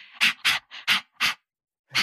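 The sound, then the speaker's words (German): A person imitates a dog's laugh, the playful panting a dog makes when romping around: five quick, breathy huffs in a steady rhythm, a short pause, then one more huff. Fairly loud, with no talking. “Wenn du mit deinem Hund richtig albern tobst, dann macht er das Maul so ganz leicht auf, hat so ein ja.”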